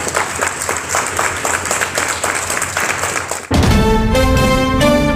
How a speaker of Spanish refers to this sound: siguen los aplausos cuando el coche con los restos de concha se dirige ya hacia el cementerio.